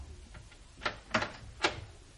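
A door being opened, heard as a few sharp clunks and clicks of the latch and handle in quick succession, with a quiet background and no talking.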